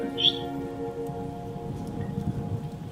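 Steady, even rain falls outside, hissing continuously throughout with no break in its rhythm. A faint sustained tonal hum sits beneath it.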